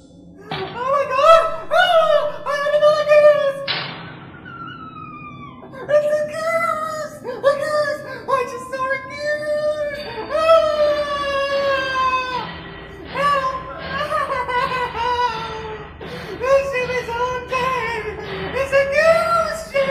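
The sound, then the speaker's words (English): A goose honks loudly and nearly nonstop, a rapid string of nasal, rising calls with only brief pauses, sounding agitated throughout. “Where's the goose?”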